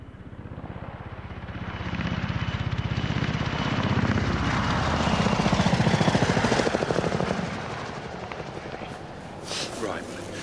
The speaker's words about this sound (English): Well, that was probably a police helicopter that's just shattered the peace of this rural idyll.